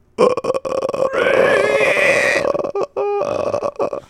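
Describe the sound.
A loud voice imitates a horror ghost's croaking rattle: a rough, throaty gurgle that stretches into one long rasp, then breaks into a few shorter choppy bursts.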